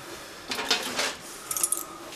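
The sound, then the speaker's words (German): Two small metal keys to patients' apartments jangle and clink together in two brief bright bursts as they are picked up to be taken along. No one speaks. “Aber wir würden uns jetzt die zwei Schlüssel von unseren Patienten jetzt erstmal mitnehmen.”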